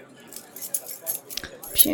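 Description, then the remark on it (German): Light metallic jingling and clinking of a bunch of keys being handled as a key is fetched, in short irregular bursts with a couple of sharper clacks. “Dankeschön für den Schlüssel.”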